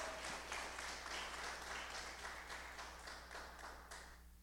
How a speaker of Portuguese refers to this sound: Pode aplaudir, pode aplaudir, prevenida.